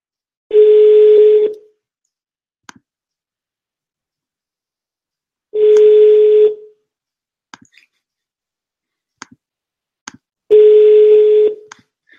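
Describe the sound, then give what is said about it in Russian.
A telephone line tone while a call is being placed: three steady, mid-pitched beeps about a second long, repeating at regular intervals with silence and a few faint clicks between them. No one speaks. “Все равно звоним дальше.”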